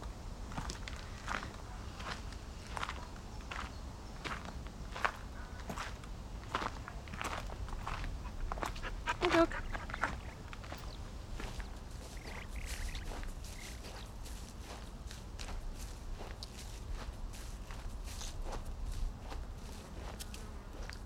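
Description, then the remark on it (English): Steady footsteps on a walk across the commons at an even, unhurried pace, each step a crisp scuff, over a low background rumble of open air, with no voices. “So, on our walk now, we might see or hear a host of different birds.”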